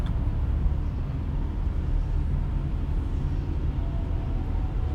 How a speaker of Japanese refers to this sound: 今こうやって車乗ってますけど